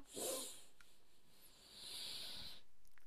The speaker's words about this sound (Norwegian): Vi kan ta et par pust til, siden jeg har mast så uendelig mye. Ok, la oss gjøre det. Pust godt inn med nesa.